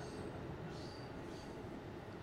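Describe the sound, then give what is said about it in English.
A train rolls steadily past, its wheels grinding a continuous rumble along the rails with faint high-pitched squeals drifting over the top. No voices are heard. “trains, trains, choo, choo, choo. trains, trains.”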